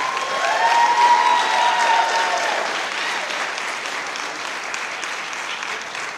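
Sustained audience applause fills the room, a dense wash of clapping from many hands with a few faint whistles or cheers early on, tapering slightly toward the end.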